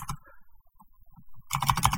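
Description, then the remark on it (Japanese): Quick clicky keystrokes rattle on a computer keyboard while searching for song lyrics, a short burst at the start, sparse faint taps in the middle, then a dense flurry of typing at the end. “そしてキーボードがうるさいっていう。”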